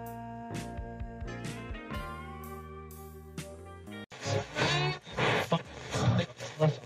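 A love song plays up close: sustained, ringing instrumental notes open the passage, then a louder, denser stretch follows with a voice singing warmly over the accompaniment.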